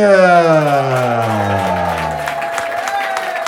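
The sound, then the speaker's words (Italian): Loud audience applause, a dense patter of many hands clapping steadily, with a strong falling tonal cheer or whoop sweeping down over it during the first couple of seconds, as a band arrives on stage. “A questo punto vorrei un grandissimo applauso perché sul palco sono arrivati”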